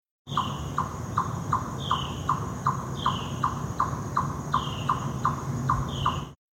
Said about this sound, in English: This is what an eastern chipmunk sounds like. A cup of coffee died to bring you this audio.